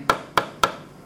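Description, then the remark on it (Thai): Three sharp knocks on a hard object, evenly spaced, each a crisp woody tap that fades quickly, with no voices. “มันอีกอันหนึ่งคืออะไรเสียงสมมติเอาเราเคาะเนี่ย”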